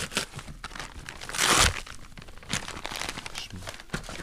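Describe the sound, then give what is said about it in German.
The packaging of a delivered Whoop package crinkles and crackles continuously, with a louder burst of tearing about a third of the way in, followed by more irregular rustling and crunching as the package is opened. “Ich mach's mal auf, ja? So, jetzt kriegen wir hier die Zuschauer hier nochmal ein bisschen ASMR-Sound auf die Ohren.”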